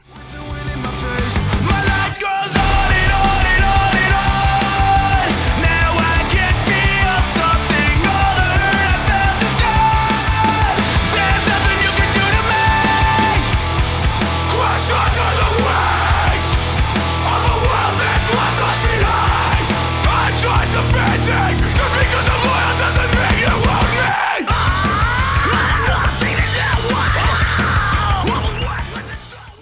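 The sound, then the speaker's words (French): A loud, dense hardcore metal track with distorted heavy guitars and driving bass, shouted vocals yelling over the wall of sound, with a brief drop-out near the start and again before the end. “Oui, ben c'est le top de mon top 3, un groupe de hardcore un petit peu métallisé quand même, cross claque euh, sur scène et on va écouter le morceau”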